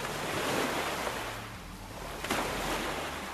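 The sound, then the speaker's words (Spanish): Ocean waves break against breakwaters along a coastal promenade in a steady, broad roar of surf, with one sharper crash of spray partway through and a light wind rushing over the microphone. “Siempre podés salir a dar una vuelta del perro, comerte una media luna o llevarte el mate y sentarte ahí, en el paseo de la costa, a mirar pasar la vida y a ver cómo las olas rompen contra las escolleras.”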